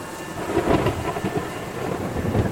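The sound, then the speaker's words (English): A thunderstorm rumbles, deep rolling thunder layered over a steady wash of heavy rain, loud and continuous throughout with no voices. “Seven for the binding to bring you the storm.”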